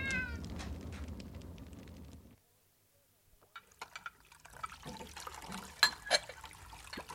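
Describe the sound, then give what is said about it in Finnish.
A cat named Katti meows at the start, a clear drawn-out cry over a low rumbling background, then a brief silence followed by scattered small clicks and trickling, liquid-like sounds. “No, älä ääntele, Katti.”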